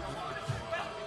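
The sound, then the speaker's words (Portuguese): A steady murmur of many voices from football fans, some in Arsenal shirts, chattering together in north London ahead of an Arsenal game, an indistinct babble with no words standing out, holding an even level for about a second. “Como vai ter o jogo do Arsenal e a gente está na região do norte de Londres, tem uma galera aqui com camisa do Arsenal aqui atrás e tal.”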